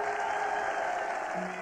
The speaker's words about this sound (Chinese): 鼓掌。此刻只能鼓掌了，哎，给一给一个欢呼是吧？